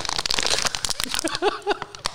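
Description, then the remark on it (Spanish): A thin plastic bottle crinkles and crackles repeatedly as someone drinks from it, with irregular sharp pops and a couple of brief gulping or squeaking sounds in between. “No me gustan estos botes. Cada vez que le doy un trago suena.”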